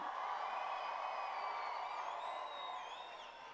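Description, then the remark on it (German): A large crowd applauds and cheers for God continuously, a dense wash of clapping with scattered high whoops and whistles rising above it, holding steady before easing slightly at the end. “Lass uns Gott einen riesengroßen Applaus geben.”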